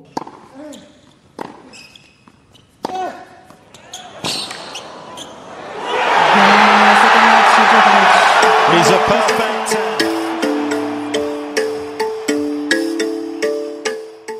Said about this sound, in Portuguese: Sentimento de alívio, comemoração junto aos familiares na torcida e choro compulsivo.